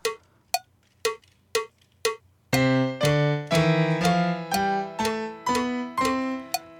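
Five short, bright electronic keyboard notes, then a run of fuller tones played over a low note, E-flat, that keeps sounding steadily without stopping. No speech.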